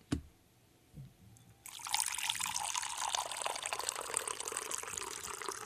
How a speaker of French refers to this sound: et on, va faire couler l'eau en premier. Là. Vous essayerez d'identifier si c'est l'eau froide ou l'eau chaude.